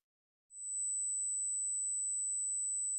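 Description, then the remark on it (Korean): A steady, piercing high-pitched sine tone imitating tinnitus begins after a brief silence and holds unchanged, thin and constant like ringing in the ears, with no other sounds or voices. “골목 입구에 있는 가로등이 미쳐 닿지 않는 방에 어두컴컴한 천장을 쳐다보던 나는 그날이 바로 이명이 생긴 지 1년이 되었다는 걸 알아챘다.”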